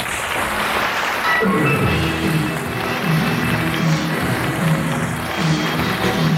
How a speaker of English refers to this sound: Now 12 years later, 3,000 miles away from Liverpool, and it is my pleasure to introduce one of those gentlemen again. Please, let me hear a nice round of applause for